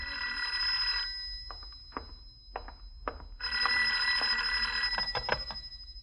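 A telephone bell rings in two long, bright metallic bursts separated by a pause of a couple of seconds, with a few faint clicks and taps in the gap.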